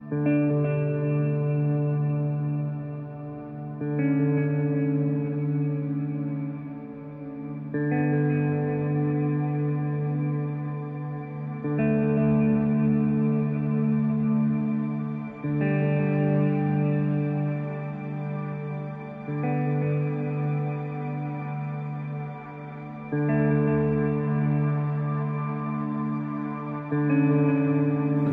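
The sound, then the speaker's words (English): Electric guitar chords drenched in reverb ring out steadily, changing roughly every four seconds in a slow, simple progression. The sustained tones swell and blur together at an even, moderate loudness with no voices. “Um, and it's, I mean, really simple, but when you play it on a really reverbed out electric guitar, it sounds fantastic.”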